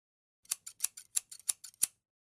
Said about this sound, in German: Die Veröffentlichung der Aufnahmen ist gebunden an die Zustimmung jedes Einzelnen. Ertönt der Scherenton.